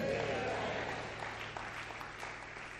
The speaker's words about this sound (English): Uh, if you are here with me, clap your hands and say, Amen.